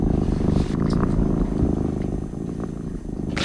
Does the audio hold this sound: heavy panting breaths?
no